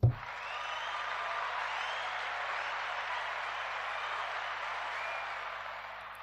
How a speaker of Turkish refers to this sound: Onları alkışlıyoruz.